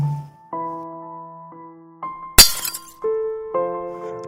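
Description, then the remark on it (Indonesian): A single loud, sharp crash of a glass jar falling and shattering breaks in midway through, surrounded by sustained musical tones that shift pitch every half second or so. No one speaks. “toples di tangan anak itu jatuh dan pecah.”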